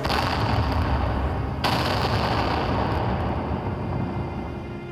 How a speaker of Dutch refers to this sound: Rondom ons dreunde het afweergeschut.